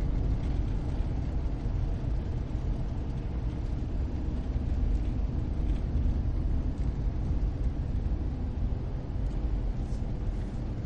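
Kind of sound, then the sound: vehicle, car driving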